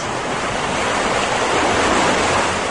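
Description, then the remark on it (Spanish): High ocean waves roar in a dense, continuous wash of surf, fairly loud and steady with a gentle swell partway through; no voices are heard. “Y las olas muy altas.”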